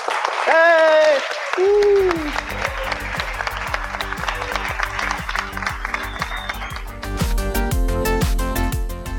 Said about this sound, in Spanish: Un aplauso para los profesores.